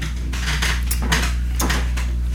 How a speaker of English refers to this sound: Um, I'll, I'll, I'll, pour some more.